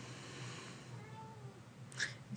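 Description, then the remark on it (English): A domestic cat sitting at someone's feet meows faintly, plaintively and discontentedly: one drawn-out complaining cry followed by a sharper, brighter one near the end, over a low steady background hum with no one speaking. “guys may or may not be able to hear my cat, who is sitting at my feet meowing discontentedly.”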